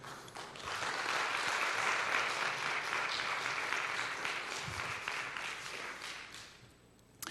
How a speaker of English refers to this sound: And if you receive today's word, would you give the Lord a good round of applause today?